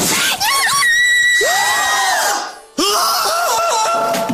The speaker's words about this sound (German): Du wolltest sagen, er hat, äh, er hat geschrien wie ein kleines Mädchen.